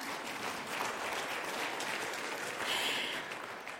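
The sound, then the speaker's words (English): Steady applause from a crowd, many hands clapping in a dense, continuous patter that holds at an even level for several seconds, swelling slightly near the end. “One person claps, everyone's got to clap.”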